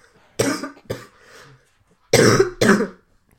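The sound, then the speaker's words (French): A person coughs in two bouts, a sharp cough with a softer follow-up, then after a short pause two louder, harsher coughs in quick succession. No talking. “tu couperas mon, ma toux au montage.”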